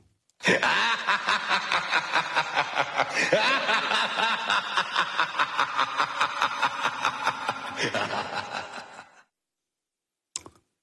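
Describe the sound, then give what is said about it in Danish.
Ronald McDonald's classic clown laugh, a long, rapid, pulsing chuckle repeating steadily for about eight seconds, loud, then fading out, followed by a brief faint click. “Der sagde han lige farvel, Ronald McDonald der. Med sit lille, hans meget klassiske grin.”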